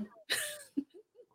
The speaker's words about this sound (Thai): ไม่ใช่เพราะไม่ไม่ดีนะครับเป็นเพราะว่าผมเป็นหวัด แต่ไม่ได้โควิดนะครับ เป็นหวัดน้ำมูกไหลไอตลอดเลย นี่ก็พยายามฝืนไออยู่